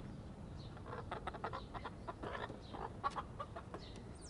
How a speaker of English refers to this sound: we have two hens. Um, Araucana hens, and they lay blue green eggs. They're absolutely beautiful and, and even more delicious than our Rhode Island red eggs, if you can believe it. They have a great sound.